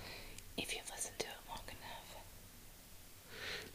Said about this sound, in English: Subliminal messages in the background. Nobody can hear that whisper.